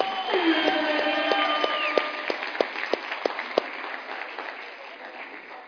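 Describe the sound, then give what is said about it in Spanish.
A crowd breaks into loud, sustained applause, a dense wash of clapping with a few sharper claps standing out, slowly easing off toward the end. “Aplauso fuerte para ustedes.”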